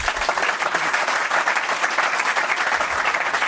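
Loud, sustained applause from an audience for a male speaker, a dense wash of many hands clapping at a steady level throughout, with no voices standing out.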